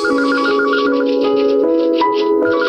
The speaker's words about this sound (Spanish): Una mañana sonó el teléfono en la oficina de aquel joven de 35 años